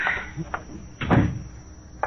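A door swings shut with a single solid thump midway through, preceded by a few light clicks and creaks, over a faint steady hum.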